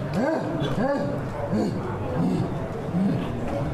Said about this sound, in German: Die Schreie lassen mich zusammenfahren.